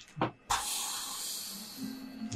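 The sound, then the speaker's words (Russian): A short puff is followed by a sudden, steady hiss like escaping steam that holds at an even level for nearly two seconds, as bluish smoke seeps from the slightly open mouth of a cat statuette. It is fairly loud, with no voices. “Вы слышите шипение и видите, как изо рта кошки слегка приоткрытого на статуэтке начинает вытекать синеватая дымка.”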